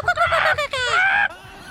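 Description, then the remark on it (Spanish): A person imitates a clucking hen: a burst of choppy, nasal clucks followed by a longer, rising squawk, loud and alone before it cuts off abruptly. “y, también estaba también una gallina.”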